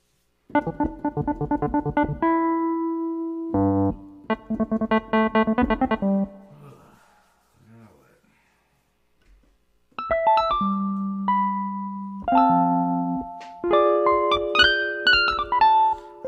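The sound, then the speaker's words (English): Electronic keyboard tones ring out loud: bursts of quick repeated chords, a brief quiet pause, then held, overlapping notes stepping up in pitch. No one speaks. “I, will tell you this keyboard.”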